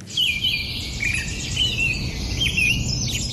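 A dense, continuous chorus of high bird chirps and twitters fills the scene without pause, over a low, steady background rumble. No one speaks.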